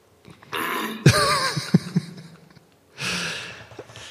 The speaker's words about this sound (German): Hier mit, mit Räusper-Ex können Sie spontane Räusperanfälle während Auditorien entgegenwirken und müssen sich nicht mehr schämen. wenn so etwas auftritt.